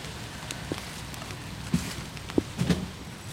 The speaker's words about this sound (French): C'est vrai que la pluie n'aide pas, elle humidifie les sandwichs à vitesse grand V.